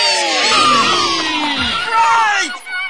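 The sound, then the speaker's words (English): A large crowd screams and shrieks loudly all at once when a secret word is said, a dense, sustained burst of high-pitched yelling that fills the space for a few seconds before cutting off. “The rest of the day, whenever anyone says a secret word, scream real loud!”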